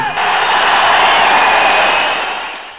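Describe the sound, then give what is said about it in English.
A large live audience at the Hammersmith Odeon in London bursts into loud, sustained applause and cheering, a dense wash of clapping with scattered whoops that holds steady for a few seconds before beginning to fade. “And if you tune into the Radio 2 VHF stereo receiver thing, but listen to it in stereo too, all I need to say is let's have a really enormous round of applause.”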